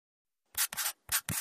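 Four quick bursts of crinkly, scratchy rubbing after a short silence, a vinyl glove pulling and peeling a dust clump off a vacuum cleaner's intake, fairly loud with no voices.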